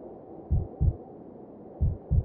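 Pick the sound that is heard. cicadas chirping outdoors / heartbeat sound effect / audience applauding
heartbeat sound effect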